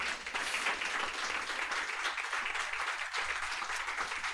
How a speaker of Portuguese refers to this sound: Uma salva de palmas aqui para essa família.